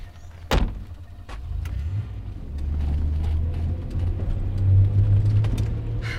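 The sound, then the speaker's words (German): A car door thuds shut near the start, then a steady low engine rumble carries on as the car drives with a passenger given a lift, continuous, with occasional light knocks and rattles. “So gefällt es dir? Ja, es federt schön besonders in der Renk. Ja, bist du nicht mit einem Auto gefahren?”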